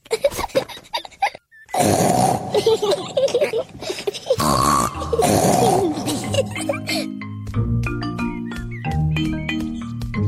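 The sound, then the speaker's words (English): Rough, loud snorting and grunting bursts come in quick succession, voices imitating pig snorts, then a steadier tonal stretch follows over the last few seconds. “I want to make big snorts too.”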